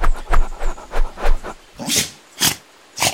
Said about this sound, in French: Ah tes souhaits, le dingo Il n'éternue pas parce qu'il est enrhumé, hein, mais parce qu'il se sent menacé. C'est comme ça chez les dingos ils n'aboient pas, ils éternuent très fort.